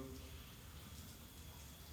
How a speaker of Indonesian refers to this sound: Banyune kutah-kutah ini iki. Itu di setiap tetesan itu ada malaikat yang ngatur.